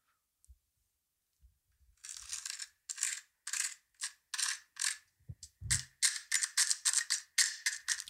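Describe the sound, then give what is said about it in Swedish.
Crisp crackling as chopsticks are drawn across and break apart the crunchy fried skirt, or wings, of gyoza while the first gyoza is pulled away to eat: a run of sharp brittle snaps that grows faster and denser, with a few soft low knocks. “Och du ska få höra här på hur det låter när man drar sina ätpinnar på det här, de här vingarna.”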